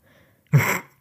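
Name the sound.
sneeze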